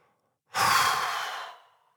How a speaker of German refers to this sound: Atme tief ein, halte die Luft an und zähle bis fünf. Dann atme laut aus.